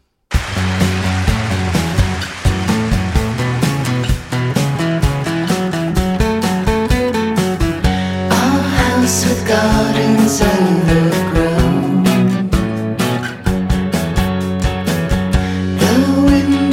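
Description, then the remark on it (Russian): A full, dense song plays at steady volume with a driving beat and layered instruments, while a female guest vocalist's sung line drifts over the mix, sounding hazy, smoky and mysterious. “она, в общем, этому треку продают такой, знаете, дымность, такую вот э, какую-то таинственность, и мне ее голос очень э, как-то ну, впечатлил”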